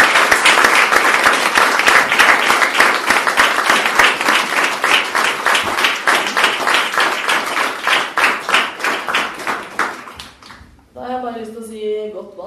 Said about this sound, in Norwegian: Da er det vi, gir vi dem en stor applaus for det her.